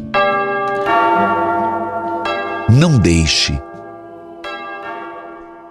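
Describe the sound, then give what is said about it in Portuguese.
A bell rung by the sacristan rings out with several strikes, each leaving long, bright overlapping tones that hang in the air; a man's voice speaks briefly over the ringing partway through. “Toca o sino, sacristão.”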